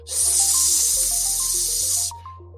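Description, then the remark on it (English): A loud, steady sizzle like meat searing on a hot grill, hissing continuously for about two seconds before cutting off, with a light tinkling musical jingle playing underneath. “Oh, what's something sizzling? Aha, it's a 50 burger.”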